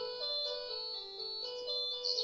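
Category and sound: signal or alarm, telephone ringing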